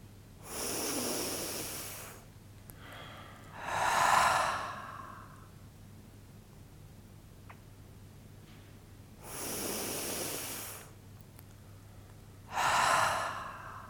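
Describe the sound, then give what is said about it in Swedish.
Two slow, deep breath cycles taken during a guided relaxation exercise: a long airy inhale followed by a fuller, louder exhale, repeated after a quiet pause, with no talking. “Och så andas vi in och ut några djupa andetag.”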